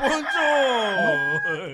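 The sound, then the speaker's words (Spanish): A rooster crows once, a loud, drawn-out cock-a-doodle-doo that holds steady and then falls in pitch before breaking off, heard on its own. “¡Vela, gallo!”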